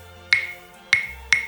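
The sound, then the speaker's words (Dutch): Three crisp claves strikes, alone, with one stick held in a cupped left hand and struck with the other. Each is a bright wooden click with a short ringing pitch; the second and third come closer together than the first two. “Ik maak een kommetje van mijn linkerhand en met de andere sla ik dus op het stokje.”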